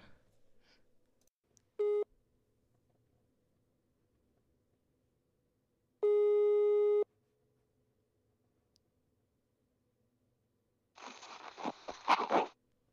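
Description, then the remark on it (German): A telephone ringing tone on the line as a call is placed to a friend: a clipped beep, then one full second-long steady tone a few seconds later, followed by a burst of rustling handling noise. “Ich rufe jetzt mal einen Freund an.”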